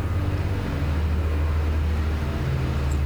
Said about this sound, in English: Um, really sorry if you can hear the chipper next door.